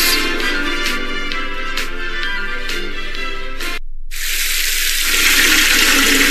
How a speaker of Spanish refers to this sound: Hoy sí puse una cubeta mientras salía el agua caliente para utilizarla después y me vaya en menos de cinco minutos.